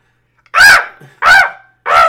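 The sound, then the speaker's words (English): A voice imitates the weird chirping of an alien creature, a bioraptor: three loud, harsh, squawk-like calls in a steady rhythm with short pauses between, with no talking. “that's not exactly how it is, but there's just like these make these weird chirping noises.”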